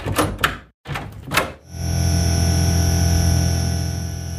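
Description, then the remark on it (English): A few sharp metallic rattles and clicks as Gil cracks the lock at the entrance, a brief pause, then a long, steady creaking groan as the door is slowly pushed open and he edges through, fairly loud with no voices. “Back at the entrance, Gil cracks the lock and then edges his way through the door.”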